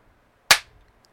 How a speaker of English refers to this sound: Just makes it easy to find the place. A clapper.